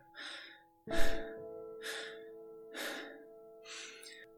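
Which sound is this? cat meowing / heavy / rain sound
heavy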